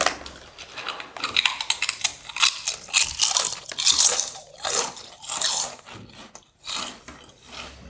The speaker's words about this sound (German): Also das Essen von Kartoffelchips.